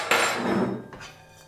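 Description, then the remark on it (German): A short burst of hard, rattling clatter as walnuts tumble from a pan into a bowl, busy for about half a second and then tapering off into quieter scraping and clicks. “dann ist es Zeit, die Walnüsse aus der Pfanne zu nehmen. Ja? Das heißt, wir gießen die jetzt einfach in unsere vorbereitete Schüssel rein.”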